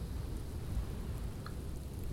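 Steady rain hisses over a deep, blustery wind rumble during a big storm, with a constant, dense texture and no voices.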